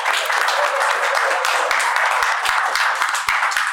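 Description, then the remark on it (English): A crowd applauds steadily, many hands clapping in a dense, continuous wash of noise that holds its loudness throughout, with a few sharper individual claps standing out. “Guys, round of applause for these people.”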